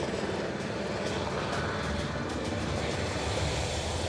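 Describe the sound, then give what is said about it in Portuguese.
A Military Police helicopter's steady, loud roar fills the air as it passes overhead a busy avenue in the Novo Aleixo neighbourhood, a dense whooshing rumble holding constant throughout with faint rhythmic ticking above it and no voices. “helicóptero da Polícia Militar acaba de passar”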